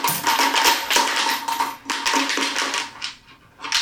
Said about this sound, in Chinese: 最后几枚硬币他就是不给我出来，他到底想怎样？